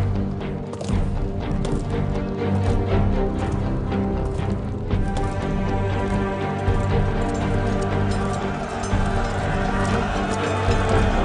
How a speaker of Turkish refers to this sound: arabayla adamları dört nala ordugaha yöneldiler.